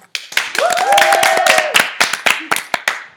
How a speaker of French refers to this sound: Très beau parcours, nous pouvons l'applaudir.